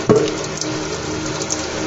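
A tap runs steadily into a sink while dishes, including a pot turned in the hands, are being washed, a continuous splashing hiss with a short knock near the start. No one speaks.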